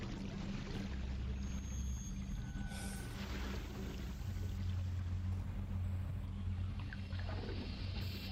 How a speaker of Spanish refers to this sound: El sol se está oscureciendo cada vez más y se escuchan chapoteos en el agua. Chapoteos que no encajan con el rumor habitual. Es como si hubiera algo debajo de esas aguas.